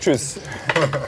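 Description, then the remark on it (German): Metal cutlery scrapes and clinks against a plate in a few quick strokes as a man silently serves himself rice onto his plate at a table where three people stand, with brief speech and a short laugh. “Er steht hier neben uns zu dritt am Tisch, ganz still, macht er sich Reis auf den Teller.”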